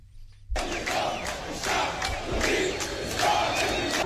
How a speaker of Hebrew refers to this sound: כן, אז אנחנו שומעים קודם כל את הקריאות המוכרות, העם רוצה להפיל את המשטר, קריאות שאנחנו כבר שמענו אותן אה, בשנים האחרונות במצרים, ולא רק שם.